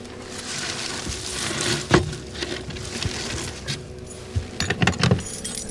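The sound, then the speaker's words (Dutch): A ring of keys jingles and clinks as someone takes them to open a methane-flux measuring cabinet on a plank in a marshy field, with bright metallic rattles in short bursts, a sharp clack near the middle and a flurry of jangling toward the end, over faint outdoor background. “Even de sleutels pakken.”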